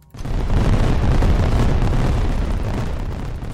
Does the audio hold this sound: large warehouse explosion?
yes